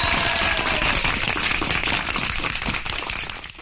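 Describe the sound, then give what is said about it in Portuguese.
Sustained applause from a crowd for businesspeople who raised donations to buy ventilators, a dense, steady wash of many hands clapping at once that holds for several seconds and tapers slightly at the end, with no voices over it. “Então, palmas aí para”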